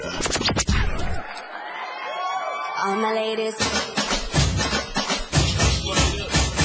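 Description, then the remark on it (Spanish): A crowd cheers and applauds loudly to welcome the show "El Show del Patrón", with whoops and whistles rising over the noise early on, then a dense, steady wave of clapping and shouting fills the rest. “Recibamos con un fuerte aplauso el show del patrón.”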